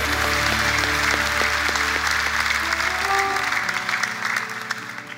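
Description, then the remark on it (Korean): An audience claps together for the Lord in a dense, steady burst of applause lasting several seconds, with sustained instrumental notes underneath, thinning slightly toward the end. “주님께 우리 영광의 박수를 드리겠습니다.”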